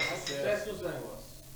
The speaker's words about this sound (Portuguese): Hoje é um dia especial, hoje tem um uma, um querosenezinho aqui, né? Então vamos fazer um brinde aqui para finalizar.